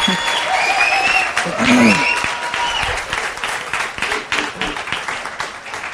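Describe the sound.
A church audience applauds steadily for about six seconds as a guest preacher is welcomed to the podium, a dense patter of many hands clapping at once, with a few scattered voices and whoops rising over it before the clapping thins toward the end.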